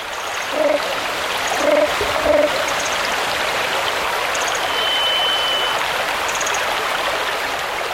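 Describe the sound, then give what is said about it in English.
A forest stream in the Carmanah Valley, British Columbia, flows with a steady rushing wash of water, while a few faint bird chirps and a thin high whistle come and go above it. “We leave you this week with the hypnotic rhythms of a stream that runs through the vast stillness of the Carmanah Valley in British Columbia.”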